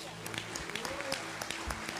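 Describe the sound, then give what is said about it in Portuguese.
An audience applauds God: steady applause, many hands clapping in a dense, crackling patter at moderate volume, with voices faintly audible underneath. “Aplaude a Deus, por isso Amém.”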